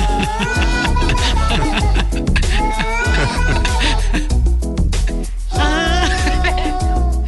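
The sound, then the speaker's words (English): Wavering, drawn-out yowls from a neighbor's cat at a door ride over a dense musical backing of percussion, reverb, keyboards and vocals, with a man singing lyrics along with the cat. Loud and nearly continuous, with a brief dip before the cries swell again. “His neighbor's cat kept coming to his door and yowling and making all these noises.”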